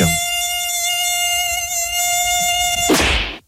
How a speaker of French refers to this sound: Ah, ça c'est le, son qu'on aime. Euh, je sais pas vous, mais typiquement, moi quand il y a un moustique qui rôde, et eh ben, c'est pour ma pomme.